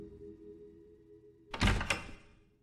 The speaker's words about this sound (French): la vieille porte s'entr'ouvre et le froid envahit la pièce.